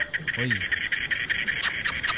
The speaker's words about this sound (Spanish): Están los pajaritos.